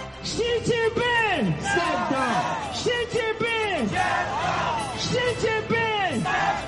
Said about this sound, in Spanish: Y con algunas protestas de ciudadanos por la política cero COVID que han vuelto a escucharse esta noche en la ciudad de Guangzhou.